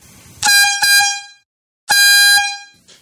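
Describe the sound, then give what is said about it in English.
Two loud, blaring air horn blasts from a handheld water-bottle horn filled with compressed air from a bike pump through a nozzle. The first is broken into two quick bursts, the second is a longer sustained honk, each with a rich buzzing harmonic tone and a sudden cutoff. “I think it's just like a water bottle and you fill the water bottle up with compressed air out of your bike pump through a nozzle and it has a horn attachment to it and you therefore can use it like like you would the canned uh, the canned air horn”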